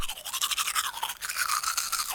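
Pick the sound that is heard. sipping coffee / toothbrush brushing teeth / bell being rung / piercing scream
toothbrush brushing teeth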